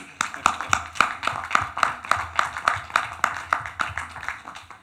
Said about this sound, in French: Allez, on peut applaudir.